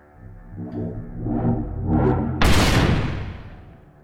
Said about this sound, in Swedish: Jag vände mig om och rullade granaten längs golvet mot varelsen. Jag hann precis kasta mig bakom en pelare när explosionen kom.